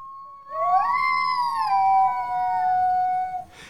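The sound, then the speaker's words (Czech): A single long howl from a hungry wolf named Vlásek rises in pitch, holds steady for a few seconds, then slowly drops and fades out. It is fairly loud, with no talking over it. “Když už z polštářů všude létalo peří a internet byl plný fotek dovádivých kůzlátek, potuloval se v tu samou chvíli v jejich ulici hladový vlk Vlásek.”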